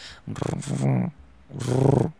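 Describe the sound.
A person imitates a cat's purr with a raspy, rumbling voice in two bursts: a longer one, a brief pause, then another.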